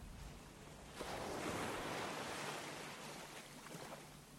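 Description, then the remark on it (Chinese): Ocean waves wash onto the shore in a steady, broad hiss that swells after the first second and slowly recedes, with a faint low rumble underneath and no voices. “在你呼吸的过程中，可以稍微发出一点声音，去倾听自己呼吸的声音，并跟随它，就像跟随波声一样。”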